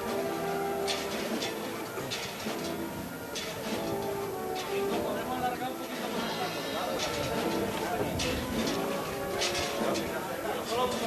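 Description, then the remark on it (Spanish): A Holy Week procession's brass and percussion band plays a slow, solemn march outdoors, its sustained tones steady and fairly loud, with crowd murmur and drum hits mixed into the street ambience. “Mira qué bonito suena esta parte de la marcha.”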